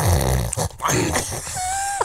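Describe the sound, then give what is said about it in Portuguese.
A person imitates a father's loud, rough snore with raspy grunting, broken up by a throaty cough-like clearing of the throat, then a sustained nasal tone trailing off at the end. “Agora, se ouvisse aquele ronco já assim meio interrompido por aquela tosse para limpar a garganta, qualquer coisa tipo do.”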